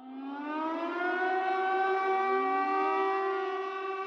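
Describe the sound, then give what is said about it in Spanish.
An air raid siren in Italy around 1943, announcing bombing raids, wails steadily, a sustained tone with a slowly rising pitch and rich harmonics, loud and continuous for the whole stretch with no voices. “Las alarmas sonaban constantemente anunciando bombardeos y todos corrían a esconderse en el sótano.”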